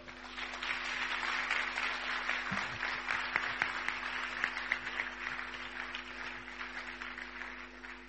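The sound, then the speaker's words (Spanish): An audience applauds steadily for about eight seconds to welcome a guest speaker, a dense wash of many hands clapping at an even, moderate level with a faint steady hum underneath. “le damos la más cordial bienvenida con un aplauso.”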